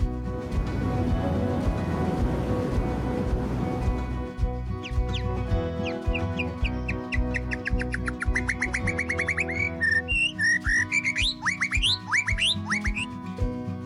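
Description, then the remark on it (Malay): A broad rushing wash of ocean waves fills the opening seconds, then quick, high bird chirps and tweets repeat over a steady low background, growing busier toward the end. “Audio tadi ialah bunyi ombak dan kicauan burung.”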